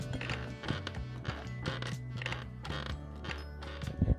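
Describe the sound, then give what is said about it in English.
A squeaky chair at home in Houston creaks and squeaks repeatedly in uneven bursts as someone sits and shifts their weight, with pitched groaning tones and occasional sharper clicks, no speech. “Because every time I'm back home in Houston, I sit on this squeaky ass chair, listen to this shit.”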